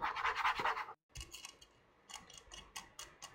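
A pet cat scratching at a floor at about half past four in the morning, waking its owner: one long, loud rasping scrape, a brief pause, then a run of shorter scratchy strokes in an uneven rhythm. No one speaks.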